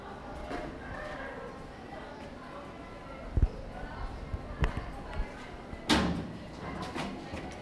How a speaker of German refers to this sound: Wohl doch nicht. Ja, die Tür geht nicht auf.